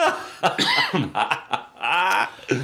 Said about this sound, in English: Okay, this one is making me cough.